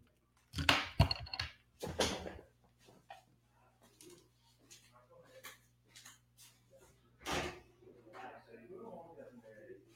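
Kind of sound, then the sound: household object, door being opened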